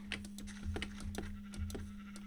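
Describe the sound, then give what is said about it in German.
Several short bleats from grey and white sheep in a video game, which drop wool as the player collects it, repeat in quick succession over a steady electronic hum, moderately loud with no talking. “Dann, wenn ich sie brauche, sind die Schafe da.”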